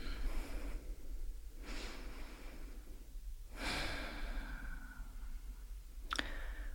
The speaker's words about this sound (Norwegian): Ok, så da kan vi jo lukke, lukke øynene. Og ta noen dype pust.